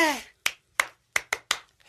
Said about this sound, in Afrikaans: Eh Simon sê. Klap jou hande.